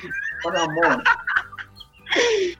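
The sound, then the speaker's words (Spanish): A human voice imitates a turkey's gobble, a quick wobbling, warbling burst made by shaking the jaw, a technique called mandibuleo, followed by a brief pause and a second short, bright vocal squeal, fairly loud. “Con mandibuleo se llama eso”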